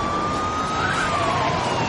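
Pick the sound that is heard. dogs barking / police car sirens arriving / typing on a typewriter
police car sirens arriving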